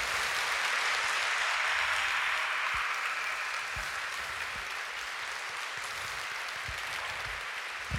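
A crowd applauds for Father Professor Constantin Necula. The applause is steady throughout: a dense wash of many hands clapping at an even, loud level, with a few sharper individual claps standing out, and no one speaking.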